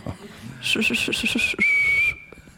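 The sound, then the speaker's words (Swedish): A person whistles an imitation of a yellowhammer's song: a quick run of five short, high chirping notes, then one long sustained note, fairly loud against a quiet background. “Alltså det är den här 1, 2, 3, 4, 5, 6, 7. Det är gulsparven.”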